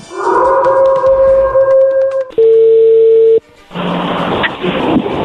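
A telephone dial tone as a call is placed begins with a short flat electronic note, then a steady tone holds for about a second before a burst of line noise. A high, sustained howl runs over the opening.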